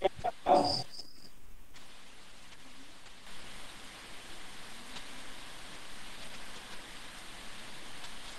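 Heavy rain falls in a steady, dense hiss that fills the whole scene, with a brief sharp burst, like a dog's bark, at the very start before the downpour carries on alone.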